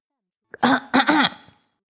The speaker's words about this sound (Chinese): 故事爷爷清了清嗓子，开始念起了魔法咒语。